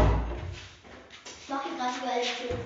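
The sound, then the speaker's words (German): A door shuts with a short, dull thud right at the start, followed by indistinct voices talking. “Sie macht über die Türen zu, weil sie blöd ist.”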